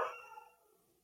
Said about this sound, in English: getting excited, my dog.